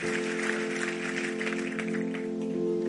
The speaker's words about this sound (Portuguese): Um aplauso dele bem forte.